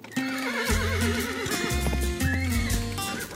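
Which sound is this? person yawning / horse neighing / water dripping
horse neighing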